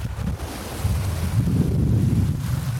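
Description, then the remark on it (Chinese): A yacht speeds across open water, recorded from the front of the boat, with steady roaring wind buffeting the microphone and waves rushing and slapping against the hull in a continuous, loud, low-heavy rumble. “游艇起航了，你可以从风浪中就可以听到这游艇的速度是多么的快。”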